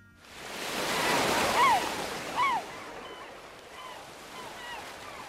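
Waves wash steadily onto the seaside shore of a small fishing village about 20 ri from Yeongyu town, in a broad, rushing swell that peaks and slowly recedes, with a few seabird cries calling out faintly over the surf.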